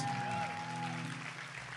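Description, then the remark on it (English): An audience breaks into steady, fairly loud applause for couples married over 40 years, filling the whole stretch, a dense wash of clapping hands with a faint tonal hum underneath and no voices. “And um, hey, for those over over 40, let's give them a round of applause.”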